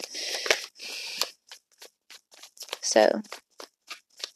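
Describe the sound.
Tarot cards are shuffled: two brisk riffling bursts, then a string of light, evenly spaced snaps and taps as the deck is worked, with a brief spoken word partway through.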